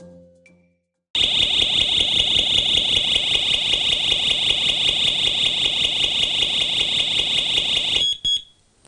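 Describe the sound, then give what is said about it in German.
A Visatech home alarm system blares a loud, continuous high-pitched siren tone with a rapid pulsing texture for about seven seconds, then abruptly cuts off as it is switched off. No one speaks. “So, jetzt habe ich sie wieder ausgeschaltet. Äh, die Alarmanlage, diese Visatech Heimalarmanlage, Hausalarmanlage, kann man ja mit der Fernbedienung in gewissen Bereichen steuern.”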